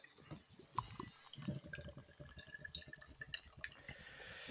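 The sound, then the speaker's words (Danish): Beer of 8% alcohol glugs and splashes steadily into a glass, a bubbly, gurgling pour that runs for several seconds with faint fizzing and no one talking. “Så hælder jeg den op, og så har den denne her...”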